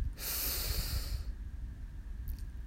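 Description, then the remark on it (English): A single deep breath drawn in through the nose, airy, lasting about a second before fading to a quiet, low background hum, taken during a guided meditation as one of three deep breaths drawn from the belly. No one speaks. “We begin by taking three deep breaths all the way from the bottom of our belly.”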